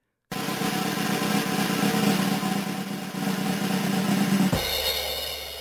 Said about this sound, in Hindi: ये drum roll था रुपसा दत्ता के लिए